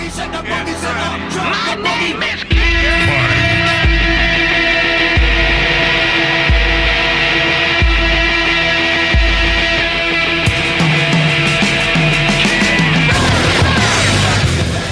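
A loud rock song blasts out: a busy intro gives way to thick, sustained guitar chords driven by a steady, heavy kick-drum beat that keeps a slow, pounding rhythm.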